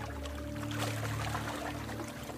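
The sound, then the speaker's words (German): Steady rushing and washing of sea waves in the sunshine, fairly loud, with a constant low mechanical hum beneath it, like a boat's engine. “Ich bin nur im Hier und Jetzt und genieße den Moment. Die Sonne, das Wellenrauschen”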